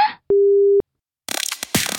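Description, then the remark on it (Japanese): A loud, steady telephone disconnect tone after hanging up a call sounds once for about half a second, then gives way to bursts of rough, hurried rustling noise. “気づいたら、電話を切って飛び出していました。”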